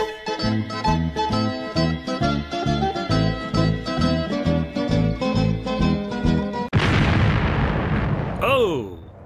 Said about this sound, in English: We've got an Italian explosion.